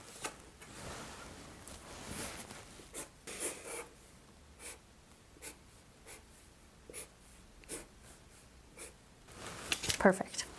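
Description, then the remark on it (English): A pen scratches across paper in a series of short, irregular strokes, fairly quiet, as a person draws a cube, copying a shape drawn for them during a medical exam. A brief rustle of movement comes near the end. “Can you draw that shape for me?”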